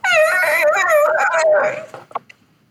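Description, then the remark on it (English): A voice imitates an injured pig squealing: one loud, high, wavering squeal held for well over a second, then trailing off into a few faint breathy clicks. “Squealing like a like a, a pig, injured pig.”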